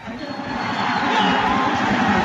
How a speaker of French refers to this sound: Il est déjà tard, les militants du Likoud sont un peu fatigués, ils chantent faux. Sharon, les premiers résultats tombent, Ariel Sharon est élu, ceux qui ont encore de la voix hurlent.